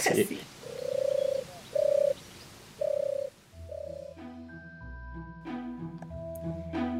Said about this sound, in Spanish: es algo muy gracioso, es el sonido de una paloma, que realmente es molestoso, pero al mismo tiempo al estar ahí y, espantar a las palomas, yo creo que se ha vuelto algo muy común y muy normal en, nuestro, día a día.